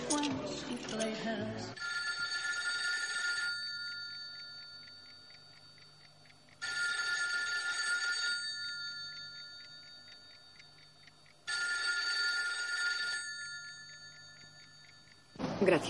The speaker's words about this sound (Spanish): En casa de Telma suena el teléfono, no hay nadie, solo su nota sobre la puerta del microondas.